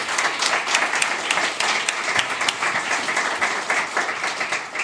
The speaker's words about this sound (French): Euh, dans Rétro 2050, on applaudit aujourd'hui